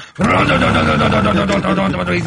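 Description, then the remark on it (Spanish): A cow lets out one long, loud moo, a low, drawn-out bellow lasting about two seconds, heard on its own. “Son los de vaca. No mames, es vaca.”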